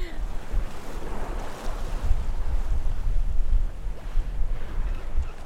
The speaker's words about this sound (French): On a passé des vagues qui étaient franchement hautes, euh, genre 3-4 mètres, je dirais au moins.